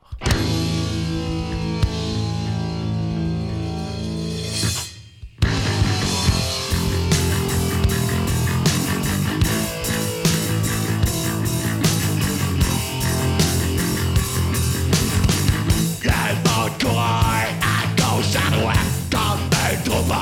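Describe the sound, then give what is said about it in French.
An alternative rock song plays loud and dense. A sustained droning intro breaks off abruptly, then the full band crashes in with driving drums and thick guitars that continue steadily to the end. “Donc on va écouter un extrait de l'album … de … paru en 92. Il s'agit de la pièce ….”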